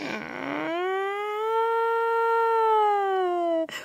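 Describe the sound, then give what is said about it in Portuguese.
A voice imitates the 'Choro Sirene', a crying that sounds like a police or ambulance siren, holding one long tonal wail that rises slightly, sustains steadily and drops at the end, loud and alone for about three seconds. “Quando ele chora, parece uma sirene ou de polícia ou de ambulância, mais ou menos assim.”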